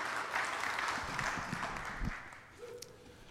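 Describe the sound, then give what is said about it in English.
An audience claps steadily for a speaker coming up to share, in a dense, sustained wave of applause that gradually thins toward the end, with no one speaking. “So, why don't you all give Josh a big round of applause as he comes and shares this morning?”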